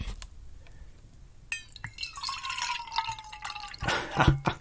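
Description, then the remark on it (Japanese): Bottled iced coffee is poured into a stainless steel, vacuum-insulated camping mug: a splashing, gurgling stream whose ringing tone rises steadily as it fills, with a few drips and a clunk near the end. “あの、今ね、キャンプ用のね、ステンレスの、ステンレスでできてて、あの、真空断熱になってるマグカップがあるんですけど、それを、それに今、アイスコーヒーを注ぎました。”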